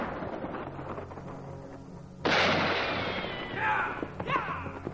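A loud revolver gunshot, fired by a gunslinger in the mountains in a western shootout, cracks out sharply and rings off into a long, decaying roar, with further faint crackling reports trailing after it over a dense, rumbling background.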